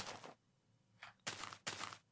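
Several soft, crunchy video game footsteps in the distance land at an uneven pace, a faint one followed by two fuller steps, with no talking in between.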